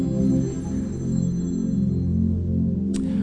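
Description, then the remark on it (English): A telephone rings with a steady electronic tone that hums continuously at moderate loudness, with a brief sharp click near the end and no one talking. “somebody answer that phone”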